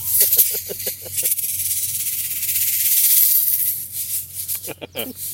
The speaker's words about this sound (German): Das hat dann so, ne, so Stimmt, das Rassel, gibt, das gibt so so. ein rasselndes Geräusch und da bist du nachts.